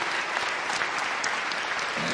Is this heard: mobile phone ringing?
no